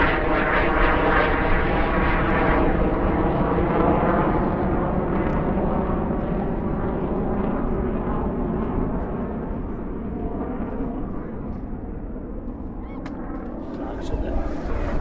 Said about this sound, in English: I like it most, to be honest, in the winter, when the sky above is the colour of Snowdonia slate and the air shakes to the sound of RAF jets splitting the silence, like the A 55 splits the island in half.